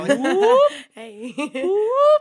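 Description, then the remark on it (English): A voice mimics a swivel chair spinning with two rising, sliding whoops, loud, separated by a quick laugh and a brief spoken word. “Whoop. That's the sound of me swiveling.”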